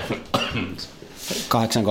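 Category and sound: human body sound, coughing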